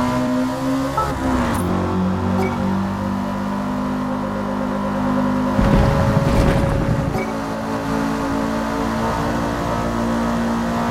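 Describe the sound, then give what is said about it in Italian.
A video game race car engine drones steadily, its pitch settling as the player releases the accelerator to slow for a curve, with a brief rougher, louder burst midway through. No one speaks. “Come sentite io rallento sempre quando ci sono le curve, quando devo girare mollo sempre l'acceleratore, il freno attualmente è assistito, quindi lo controlla lui.”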